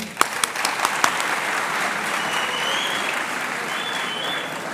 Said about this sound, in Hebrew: לא מגיע לו מחיאות כפיים?